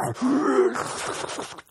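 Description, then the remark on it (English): A person vocally imitates someone snoring with a sleeping bag over his face, sucking in the bag: a drawn-out breathy howl with a wavering, slightly rising tone, loud, fading out after about a second and a half. “He's like sucking in the sleeping bag, and it makes like this weird like howl.”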